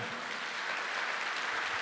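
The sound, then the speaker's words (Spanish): An audience at a church service breaks into steady applause for the Lord, a dense, continuous wash of many hands clapping at once with no distinct rhythm, sustained at an even level throughout. “Quiero que le dé un fuerte aplauso al Señor.”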